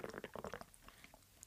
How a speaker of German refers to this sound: Achso, Entschuldigung, ich habe getrunken. Das war sehr laut.